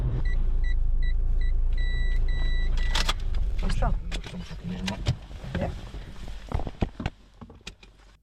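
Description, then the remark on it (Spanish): A car's warning chime beeps in a quick repeating pattern over a low engine rumble, then a door clunks and people shuffle out of the car at a vineyard, with a brief spoken word. “Y nada más bajar del coche, se despliega ante nosotros el verde intenso de las vidas.”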